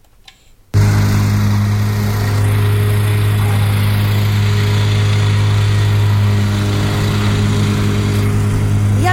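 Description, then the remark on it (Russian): A loud, steady diesel engine of an excavator starts abruptly and keeps droning with a deep, even hum during road repair works on the Teglovsky Bridge, with traffic in the background. “Здесь ведутся ремонтные работы, работает экскаватор.”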